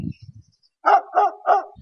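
A dog barks three times in quick, even succession, loud, after a brief low murmur at the start.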